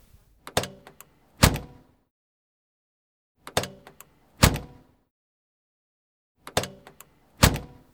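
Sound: car door closing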